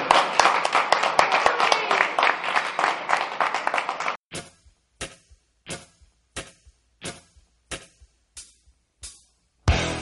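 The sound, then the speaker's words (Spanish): A burst of applause from a small crowd, dense and lively for a few seconds, then thinning out into scattered single claps spaced evenly apart until it ends. “un aplauso, por favor, a David Morcillo”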